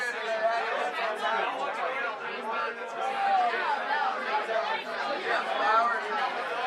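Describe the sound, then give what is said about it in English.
Dense, continuous babble of many overlapping voices fills a crowded room, steady and fairly loud throughout with no single speaker standing out. “Uh, we have a very full room, so it might be kind of hard to hear us”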